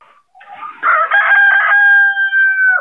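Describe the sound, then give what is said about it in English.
A rooster, one of eight on a farm with about 500 chickens, crows once, loud, its call rising into a long sustained final note that holds steady before cutting off. No one speaks over it. “There goes that rooster again.”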